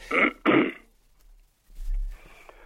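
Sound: throat clearing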